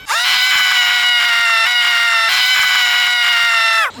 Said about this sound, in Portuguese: mas ele parecia não me ouvir e continuou cada vez mais alto. Me sentindo absolutamente impotente e cansada, olhei para ele em desespero e, sem aguentar, simplesmente cedi e comecei a gritar junto.